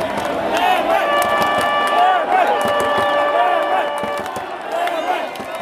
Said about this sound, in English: As the 4 o'clock throw-in approached, fans flooded into the stadium.